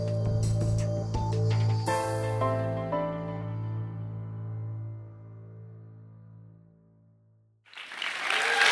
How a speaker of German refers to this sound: Vielen, vielen Dank für dieses herzliche Willkommen. Ich finde es sehr mutig, dass ihr jetzt schon äh, klatscht.